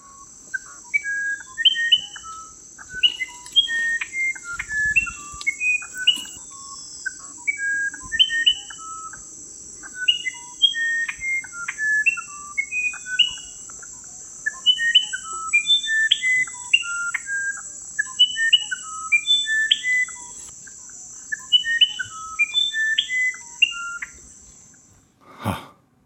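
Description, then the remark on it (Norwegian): An organ wren sings a long, flowing series of pure, fluting whistled notes in varied pitches, phrased in repeated clusters, heard alone over a steady high insect drone. “du har sendt meg eh, på forhånd uh, lyden av en orgelsmett”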